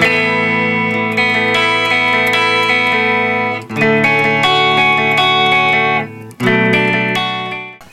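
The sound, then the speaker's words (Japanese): A Gibson Les Paul electric guitar with distortion, played in a Gibson showroom, rings out in loud, sustained power chords, struck three times and left to ring between hits, the last chord fading out. No one speaks. “んかレスポールなのに結構柔らかいですよね”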